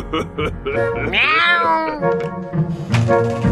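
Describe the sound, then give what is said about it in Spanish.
A voice imitates a cat with a quick series of loud meows, one drawn-out and wavering in pitch, followed by a few shorter ones. “¡Miau, miau, miau, miau, miau!”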